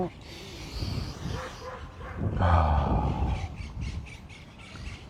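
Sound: dog barking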